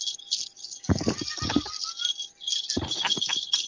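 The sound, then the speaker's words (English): Bright, continuous jingling of small bells, shaken in rhythmic bursts with a few louder, fuller shakes, fairly loud with no voices. “I hear jingle bells.”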